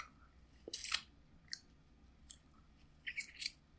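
Crinkling of the paper wrapper of a small caramel-flavored Hostess cupcake mixed with soft chewing as it is eaten, in several short, sharp bursts separated by brief quiet gaps, with no one talking.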